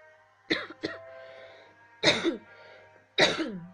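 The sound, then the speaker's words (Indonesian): Several loud coughs and throat-clearing bursts from a person with bronchitis symptoms: a quick double cough near the start, then two heavier, raspy coughs spaced about a second apart, with no talking. “batuk udah berapa lama ini ya aku batuk ini tapi bukan corona loh ya udah aku periksain sih tapi kata dokter itu kena gejala bronkitis gitu katanya ya karena terlalu sering menghirup udara tidak bagus dan kurang minum air putih kayak gitu sih”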